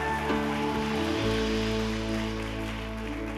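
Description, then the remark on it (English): An audience at a Christian sermon claps steadily, a dense, continuous patter of many hands, with sustained low musical tones humming underneath throughout. “You can clap for them.”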